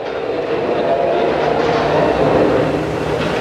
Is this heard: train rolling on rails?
yes